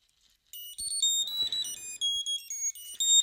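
A wireless alarm receiver, one of several identical-looking units with a button, rings with a shrill, repeating electronic melody of high-pitched tones, loud and steady in short bursts, with a few faint clicks and handling noises underneath as it is silenced.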